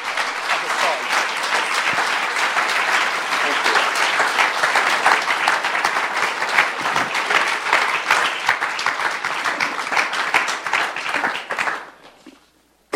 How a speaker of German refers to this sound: Wir begrüßen mal beide mit einem tosenden Applaus